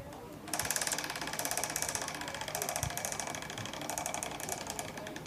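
A prize wheel, called the "Regenbogenrad des Todes" (rainbow wheel of death), is spun by a contestant in a quiz. It gives a rapid, steady stream of ratcheting clicks that begins abruptly and keeps an even, fast rhythm, gradually easing slightly as it turns.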